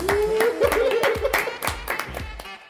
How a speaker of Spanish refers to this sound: ¿cómo cerramos? un aplauso para la luz.